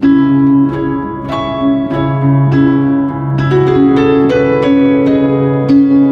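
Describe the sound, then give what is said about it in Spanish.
A close, moderately loud sequence of sustained chords, likely piano, each struck with a clear attack. The progression moves in minor and falls to the sixth degree, with no voices. “La caída del sexto grado en modo menor suena así.”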